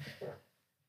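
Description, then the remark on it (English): A short, low, buzzy creak from a chair, fairly loud, that sounds a lot like a fart, fading out within half a second. “That was my chair.”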